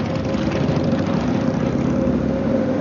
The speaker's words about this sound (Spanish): Se montan en la moto y se marchan.